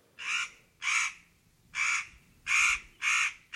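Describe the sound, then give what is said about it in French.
A crow caws repeatedly, six harsh, loud calls in a steady rhythm with short pauses between them, the last cut off. There is no talking, only faint background noise. “Eh bien, le corbeau, recycleur naturel, est aussi un pilier du monde vivant.”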